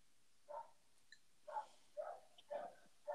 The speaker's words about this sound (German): Ja, unsere blöden Nachbarshunde bellen wiederum.